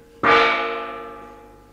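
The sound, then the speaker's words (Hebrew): A single gong strike opens Ephraim Kishon's radio play "The Sulzbaum Affair", ringing out with a sharp onset, then a rich metallic shimmer that slowly decays and lingers. Fairly loud, with no voices. “שם התסכית אה, פרשת זולצבוים גונג. עוד פעם.”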